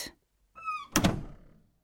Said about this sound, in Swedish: Mamma Troll stängde dörren och inne i sovrummet blev det tyst.